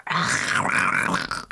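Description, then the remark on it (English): A person voices a short, guttural scary monster growl, rough and sustained for about a second and a half, with no other sounds around it. “I had this idea to make a bunch of really scary monster sounds like this”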